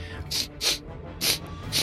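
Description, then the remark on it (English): A voice imitates a troll sniffing as it makes its way through: four short, breathy sniffs in a steady rhythm, fairly loud against a quiet background. “he's sniffing and he's looking and he's he's sort of stonking his way through here”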